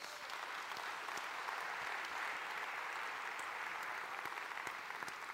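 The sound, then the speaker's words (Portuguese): An audience claps together in a dense, steady wash of applause that holds an even level for about five seconds, with no voices heard over it. The applause follows a preacher's call for a big round of applause to the Lord Jesus. “Quem pode dar um grande aplauso ao Senhor Jesus?”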